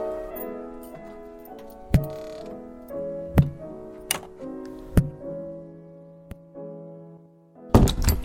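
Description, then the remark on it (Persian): A key fumbles at the lock of a home's door late at night with several sharp, irregular clicks and thunks, then a louder rattling clatter as the door opens, all over a steady, sustained musical drone. “کی به خونه میرسم اوه چشمام با دستم هماهنگ نیستن نمیتونم کلیدو آه باز شد”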